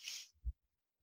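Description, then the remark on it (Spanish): A single sneeze: a sharp, hissing burst that quickly fades, followed by a brief low thud and then quiet, with no talking. “Salud.”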